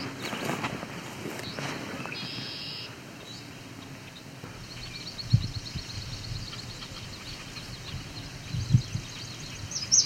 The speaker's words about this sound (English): sounds like a yellow warbler. Interesting. Is there a yellow warbler in here? It does appear to be so.